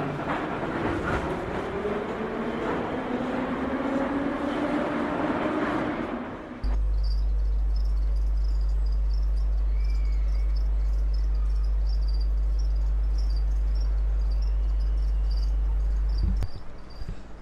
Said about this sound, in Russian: Слышите этот звук? Вот. Вот именно этот звук поющих сверчков и слышит каждый владелец рептилии. Не, ну правильно, надо же чем-то рептилию кормить.